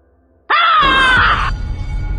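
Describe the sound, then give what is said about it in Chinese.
A loud, terrified yell bursts out suddenly after near silence as someone wakes from a nightmare and sits up in bed in a dormitory, a strained, harmonic cry holding for about a second before breaking off into low, rumbling noise. “拼尽全力挤出一声吼后，我陡然从床上坐了起来，这才吁了口气，总算醒了。”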